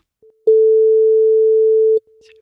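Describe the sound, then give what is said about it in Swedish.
A telephone ringback tone sounds while a call to someone in another country waits to connect: one steady, loud electronic beep lasting about a second and a half, with only faint traces of tone before and after. “Vi lyfter luren och ringer”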